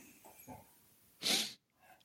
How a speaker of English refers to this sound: Gus, what are you doing? Why are you barking?